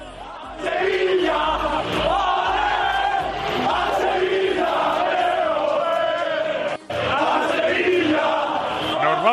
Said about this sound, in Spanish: Este es el grito de la afición, mejor dicho, el grito de la felicidad de los jugadores del Mallorca.